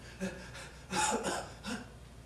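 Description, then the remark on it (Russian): A person imitates the short breath of someone doing hard work with a few short, breathy exhalations, three quick huffs spaced about a second apart, fairly soft, with no talking. “Ну, пша, простой смысл, короткое дыхание. Когда человек так работает, что”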